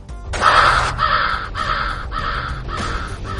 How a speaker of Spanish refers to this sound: Bueno, estos son los pájaros de Hiscot, no son los halcones.